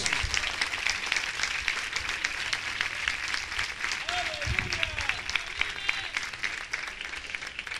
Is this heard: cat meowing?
no